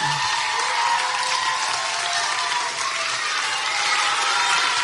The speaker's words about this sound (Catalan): Aquí no hi cabem tots, per tant, vosaltres heu tingut el privilegi de representar a tots els nens i nenes de Premià de Mar per desitjar-nos unes bones vacances i un bon Nadal a tots. Un fort aplaudiment.